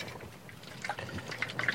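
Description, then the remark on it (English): The last of the drinking water, about 300 to 400 ml, sloshes and trickles in a container, with soft irregular splashes and gurgles that grow a little busier toward the end. The sound is fairly quiet, with no talking. “that's about 300, 400 mil. And that's it for water.”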